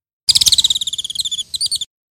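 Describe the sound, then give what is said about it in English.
A rapid, trilling birdlike song of repeated high chirps, evenly pulsed and fairly loud, with a brief pause near the end before a few more notes; a synthetic imitation of a Bengalese finch's song, produced by researchers with a rubber tube and a minimal mathematical model. “The researchers then created what they called a minimal mathematical model that allowed them to mimic bird songs, and, well, here are the results.”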